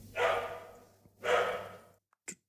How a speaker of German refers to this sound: So Ein Hund hier. Es ist nicht mein Hund. Das ist der, der Nachbarshund im, im Flur, der äh, auch äh, seinen Beitrag diesem Podcast ähm, beisteuern will. Der ist aber echt laut. Ähm, könnt ihr den hören?